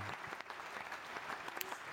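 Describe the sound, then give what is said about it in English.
A crowd applauds steadily, many hands clapping in a dense, continuous patter that stays at an even, moderately loud level throughout with no voices standing out. “So real quick, I want y'all to give me a round of applause for showing up this evening.”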